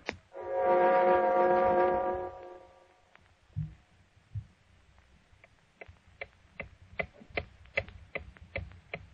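A loud, sustained low horn-like tone fades away, followed by a clock ticking steadily, its sharp regular ticks growing slightly clearer with no one speaking.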